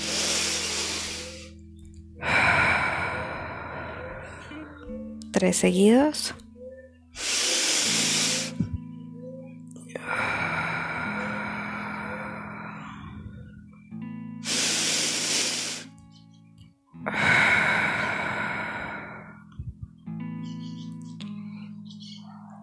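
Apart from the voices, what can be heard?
deep breathing exercise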